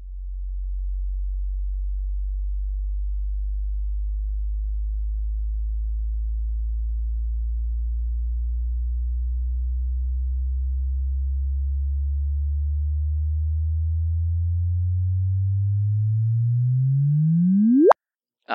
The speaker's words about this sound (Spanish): Lo que van a escuchar a continuación es la conversión de la gráfica de la señal que recogieron los detectores de ondas gravitacionales convertida en audio. Vamos a escucharla.